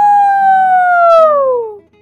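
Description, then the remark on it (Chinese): A rooster crows once, a loud, drawn-out call that holds a steady pitch and then slides downward as it trails off, with no other sounds around it. “随着皮迪克的打鸣声，一轮红日从天边冉冉升起了。”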